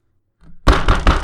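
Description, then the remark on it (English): An infected dwarf locked in a cell pounds his fist heavily on the cell door, about four loud blows in a quick, steady rhythm after a brief quiet moment, each thud booming and resonant. “He's pounding on the door.”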